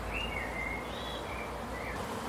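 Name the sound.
swarm of bees buzzing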